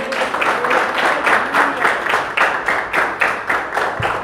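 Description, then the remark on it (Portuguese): An audience claps their hands together in praise of the Lord during an evening service, in a steady, loud rhythm, roughly two beats per second, sustained for several seconds without any talking over it. “E as palmas louvem o Senhor nesta noite.”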